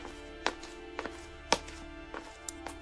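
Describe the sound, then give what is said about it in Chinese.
A lighter clicks repeatedly at a doorway at night as a man tries to light a cigarette, about six sharp, dry snaps at uneven intervals, one noticeably louder than the rest, over a faint steady low hum with no voices. “打火机的声音在门口响起，老小虎站住。”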